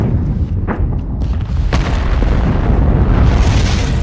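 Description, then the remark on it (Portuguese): A rocket's first-stage motor ignites unexpectedly on a day with no launch planned, with a loud, deep boom that swells into a sustained, heavy rumbling roar, powerful, with no voices. “O estrondo, escutado por quase todos que estavam no local, não era de explosão.”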